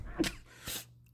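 A single sneeze with a sharp intake, followed by a second breathy burst, both abrupt and fairly loud against a quiet background.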